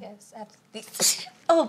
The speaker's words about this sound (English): bless you. COVID, just kidding. No, but. what the fuck was that? Little COVID moment. No, I'm just kidding.